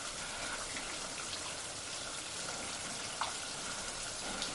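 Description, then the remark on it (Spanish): A steady, dense hiss of running shower water pours continuously, fairly loud, with a few faint splashes breaking through the constant spray, as a woman stands under it with the water running down her face. No voices. “Mantiene la cabeza levantada y los brazos relajados mientras el agua desciende por su rostro.”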